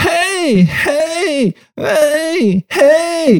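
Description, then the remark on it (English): A voice mimics the wailing cry Baby Mario makes when floating in a bubble in a Yoshi video game: four loud, warbling wails in quick succession, each rising and falling in pitch with short gaps between. “Do you remember the annoying sound that Baby Mario would make when he's floating in the, the bubble?”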